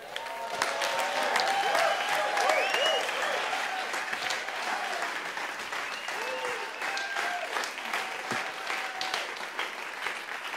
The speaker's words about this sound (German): dann lasst uns doch den einen großen Applaus geben, während er jetzt auf die Bühne kommt.